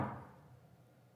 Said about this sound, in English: I'm knocking on your door.